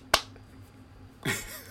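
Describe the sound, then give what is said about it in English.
A single sharp, crisp clap rings out once and decays quickly, followed by a quiet pause and then a soft, breathy noisy burst, as someone mimics the lone hand clap of one kid in a movie scene where no one else claps or reacts. “All you see is his lower body and his hands clapping, but no one else reacts.”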